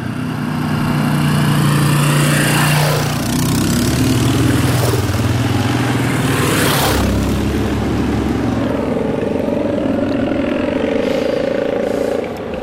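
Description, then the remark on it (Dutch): A dirt bike roars past, its loud, buzzing engine whining up and down in pitch for several seconds before fading slightly, with no one speaking. “Ja, maar ik ga even wachten, want er komt een brommer ja, aangescheurd. Een crossmotor.”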